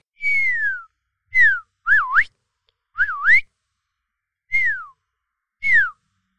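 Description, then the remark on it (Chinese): A person whistles an imitation of an African grey parrot's natural call, not its mimicry: six clear, loud whistled notes, some sliding downward and others swooping down then up, separated by short pauses. “我们来学一下灰鹦鹉原始该有的叫声。”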